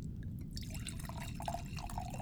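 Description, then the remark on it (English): Cola pours steadily into a glass, a continuous splashing gush with fizzy crackle and a faint rising tone as the glass fills, lasting a couple of seconds with no talking. “Let's just get the pour done, okay?”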